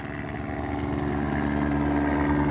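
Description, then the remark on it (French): A helicopter flying overhead: a steady, loud mechanical drone with a rapid low thudding pulse from its rotor and engine, holding constant and slightly swelling over a few seconds with no voices. “je pense que le mot en français est hélicoptère.”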